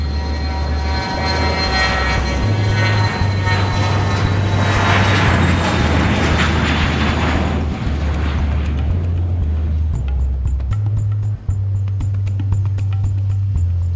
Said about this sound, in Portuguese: Um Boeing 727 com 36 passageiros a bordo. Às 4h35 da tarde, o avião decola.